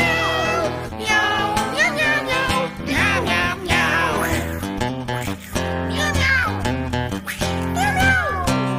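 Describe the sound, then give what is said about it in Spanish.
A voice imitates a cat's meows in a song, singing several drawn-out, gliding meow calls as a cat in love serenading its sweetheart, over busy, steady background music, loud throughout. “El enamorado le canta a la bichita así, pero miau. Miau, miau, miau.”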